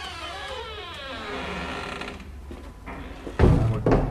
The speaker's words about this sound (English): If we need a creaky door, we just use this.